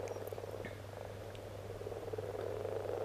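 Frogs croaking steadily in a continuous chorus, a dense layer of overlapping calls at moderate loudness with no voices, over a low constant hum.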